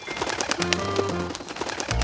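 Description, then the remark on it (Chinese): Startled small birds in a tree flap their wings rapidly as they fly off in all directions, a dense, fluttering flurry of soft papery beats lasting about two seconds, with a low humming tone running underneath. “本来睡得很香甜的兔子，被小鹿卖力奔跑的声音，还有鸟儿快速拍打翅膀的声音给吓醒了。”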